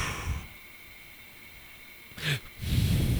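A single quick, sharp sneeze bursts out after a quiet stretch, followed by a rush of breathy noise. No one speaks.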